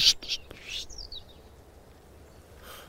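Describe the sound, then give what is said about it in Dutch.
A bird hidden in dense vegetation calls back with a few bright, high chirps and a short descending trill, against a soft rustling background with faint breathy noise. “ja, hij roept terug.”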